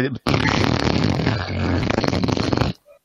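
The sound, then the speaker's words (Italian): A long, loud, buzzy fart rattles on for about two and a half seconds, starting abruptly and cutting off sharply, with no talking over it. “Tiro una scoreggia.”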